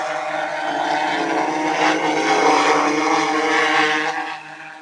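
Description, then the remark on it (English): A steady, high-pitched whir of a small camera drone's propellers runs loud for several seconds with a buzzing harmonic tone as it gets ready to take off, then eases slightly at the end. No one speaks. “At this point, I'm ready to take off, so we'll do a little bit of flying around here”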